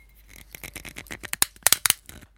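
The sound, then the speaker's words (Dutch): A rapid run of small plastic clicks and ticks as a bottle cap is twisted open, growing a little louder toward the end, with no talking. “Schroef de doppen vanaf.”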